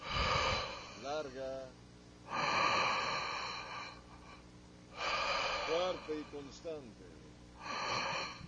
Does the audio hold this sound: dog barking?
no